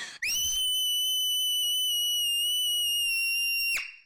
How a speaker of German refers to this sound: Aber halt bitte dir die Ohren zu, weil ich schrei sehr laut.